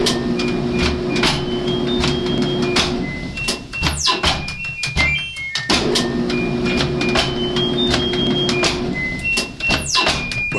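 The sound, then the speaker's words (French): Two people play a washing machine: one rapidly presses its programming buttons, making electronic beeps, while the other repeatedly opens and closes its door with clunks and thuds, over a steady low machine hum. No one speaks. “Il y en a un qui tape sur les boutons de programmation de la machine et l'autre qui ouvre et qui ferme la porte.”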